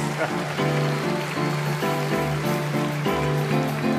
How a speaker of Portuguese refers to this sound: Esses dois sambas eu fiz para ele, para o mestre Ataúfo Alves. Palmas para Ataúfo que ele merece.